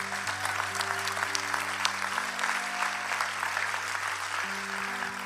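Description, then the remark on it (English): An audience in a church service claps steadily for everybody after a prayer of salvation, dense overlapping handclaps forming a continuous wash of applause, with sustained low organ or keyboard tones held underneath throughout. “Come on, let's clap for everybody.”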